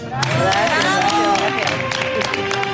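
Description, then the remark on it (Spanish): A crowd applauding steadily for a chef who owns the restaurant Tierra y Cielo, many hands clapping in a dense, even patter, with excited voices and cheers rising over the claps throughout. “Aplauso, por favor, a la propietaria de Tierra y Cielo,”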